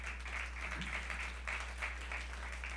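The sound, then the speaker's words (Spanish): An audience claps steadily for a few seconds, a dense, crackling wash of many hands at an even, moderate level with a low hum underneath and no one speaking. It is a strong round of applause for the King, given right after a prayer closing in Jesus' name. “Démosle un fuerte aplauso al Rey.”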